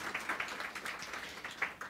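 A burst of audience applause, many hands clapping in a dense, steady patter at moderate loudness, with no one speaking over it.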